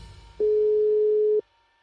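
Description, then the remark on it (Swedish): A telephone line tone sounds once, a steady mid-pitched beep lasting about a second that starts and stops cleanly, with only faint low background noise and no voices, heard while phoning the rector of the Stockholm School of Economics (Handelshögskolan), Lars Strannegård, whose number cannot be reached. “Jag söker Handelshögskolans rektor Lars Strannegård flera gånger på telefon.”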